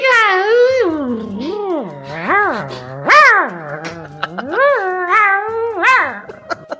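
A dog whines and howls in a run of drawn-out, rising and falling cries, each swooping up in pitch and sliding back down, fairly loud with brief gaps between them.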